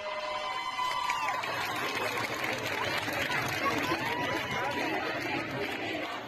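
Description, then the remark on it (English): A large crowd of women protesting in the street in Iran raises a dense, continuous roar of overlapping voices, marching, shouting, chanting and yelling at police outdoors, loud and steady throughout with no single voice standing out. “Over the past few days, we have seen these scenes of massive crowds of women protesting in the street, marching, chanting, yelling at police, and breaking the laws around their hair.”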